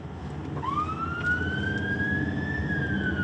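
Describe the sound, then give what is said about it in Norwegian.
A police car siren wails loudly, sweeping upward in one long rising tone that starts after a brief moment and holds steady over a constant low rumble of road and engine noise. “Vi skrur av blålys og sirener for å, for å ikke vekke noe særlig oppmerksomhet.”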